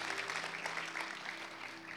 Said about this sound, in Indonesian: Kasih tepuk tangan yang meriah untuk Tuhan Yesus.